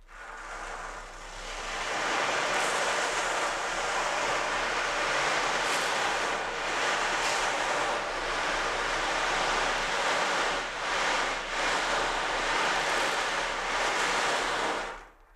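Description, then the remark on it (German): An ocean drum's beads rolling across its skin produce a steady, washing hiss like sea surf, swelling and easing in gentle waves for about fifteen seconds with no voices, fairly loud before fading out. “Auf dem Fell bewegen sich die ja. Kugeln und dadurch klingt es nach Meeresrausch.”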